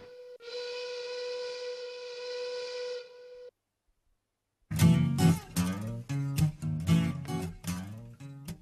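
A steam locomotive whistle gives one long, steady blast, then stops. After a short silence, a louder, busier passage of rhythmic pulsing sound follows.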